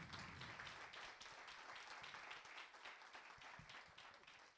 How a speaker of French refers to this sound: J'espère que ça vous a donné envie d'aller plus loin. On peut applaudir